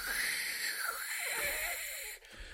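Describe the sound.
A voice imitates wind blowing in snowed-in Düsseldorf: a steady, breathy whoosh with rising and falling whistling tones that carries on for a couple of seconds, fairly loud, with no talking.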